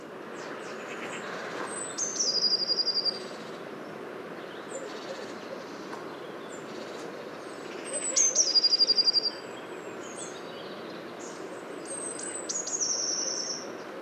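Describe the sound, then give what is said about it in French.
A blue tit sings three short, high-pitched phrases a few seconds apart, each thin opening notes running into a quick trill, heard fairly clearly over a steady background hiss. “petit champ de mésange bleu”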